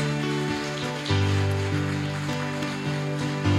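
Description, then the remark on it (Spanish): A crowd applauds Christ Jesus steadily, a dense wash of clapping that holds at an even level throughout, with low sustained musical tones droning underneath. “A Cristo Jesús, por favor, ahorita, démosle todas y todos el más fuerte aplauso a Cristo Jesús.”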